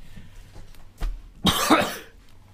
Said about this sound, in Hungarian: kicsit köhögsz.